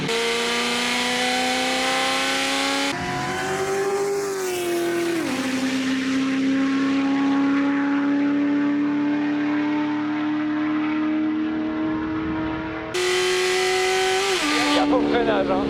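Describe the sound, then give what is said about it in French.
A 1300-horsepower car engine roars loudly, its pitch climbing and then holding a high, steady drone amid harsh hissing noise as the tires spin on the asphalt, before surging again near the end. “C'est ça que ça fait 1300 chevaux C'est ça que ça fait je crois.”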